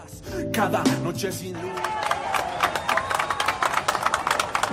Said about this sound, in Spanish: Y aquí gritan federalistas.